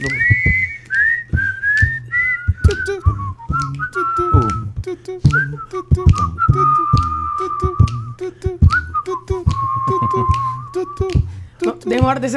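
A person whistles a melody up close, the pitched notes gliding and wavering across about twelve seconds, with rhythmic percussive backing and occasional voices underneath.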